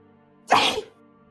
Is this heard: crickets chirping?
no